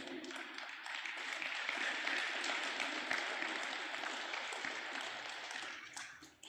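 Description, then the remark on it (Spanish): A crowd applauds steadily for about six seconds during a sermon, a dense wash of many hands clapping at once, loud, before tapering off quickly at the end. “veo que tú le doy otro aplauso a papá.”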